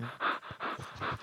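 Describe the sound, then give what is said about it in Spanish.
A dog that has just arrived pants in quick, breathy bursts, three rough huffs in a steady rhythm, fairly clear, with no voices over it. “Ese es el perro que llegó ahorita.”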